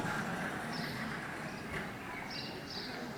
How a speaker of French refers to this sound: C'est un Leclerc C'est un Leclerc en extérieur.